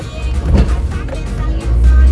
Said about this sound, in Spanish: Es que está pasando el camión de la basura que pues cree que no debemos de pasar los demás y pues tenemos que pasar todos.